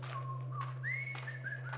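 A short whistled jingle: a few clear, sliding notes rising and falling in a brief tune, heard alone over a steady low electrical hum.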